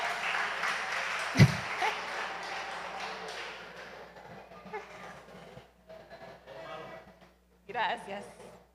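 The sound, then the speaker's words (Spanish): A crowd claps in a dense, steady burst for a few seconds, applauding Aslan, a lion brought from the Barranquilla Zoo; then the applause thins out and fades while voices talk over the tail. “Quiero dar un aplauso a Aslan que vino del Zoológico de Barranquilla.”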